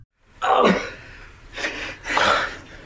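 A man gasps and groans in pain, three strained, breathy bursts with short pauses between them and no other talk: the character Tuco, who has been shot, writhing in pain at the bottom of a pit while Jesse and Walt stand above him.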